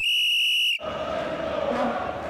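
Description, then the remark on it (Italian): A single long, shrill referee's kick-off whistle blast sounds clearly for under a second, then cuts off into a steady roar of crowd noise and shouting. “Fischio d'inizio.”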